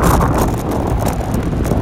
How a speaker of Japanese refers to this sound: 車の音と多分なんかガタガタ言ってる音と風の音でもうめちゃくちゃ聞こえてないと思うんですけど